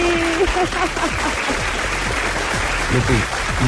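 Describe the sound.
Steady applause from a group fills the whole stretch, a dense, even patter of clapping at moderate loudness, with faint voices mixed in underneath.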